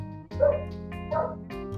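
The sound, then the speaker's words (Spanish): A dog barks twice in quick succession, two short, fairly loud woofs about a second apart, over a low steady background hum with no one talking. “El perro también tiene un guía, che.”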